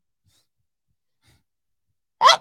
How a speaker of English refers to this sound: And I have to sneeze